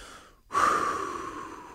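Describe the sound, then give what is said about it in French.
A single deep, audible breath starts abruptly after a brief pause, loud and close, then slowly trails off like a long sigh of relief. No one speaks. “On peut respirer?”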